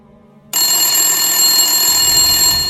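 A telephone bell suddenly starts ringing after a brief quiet moment, a loud, shrill, continuous metallic trill that holds steady to the end with no voices.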